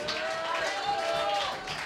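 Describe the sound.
An audience at a workshop event claps steadily for the bar and kitchen staff, a dense, even wash of many hands lasting the whole moment, with a faint tonal whistle or voice threading through the noise.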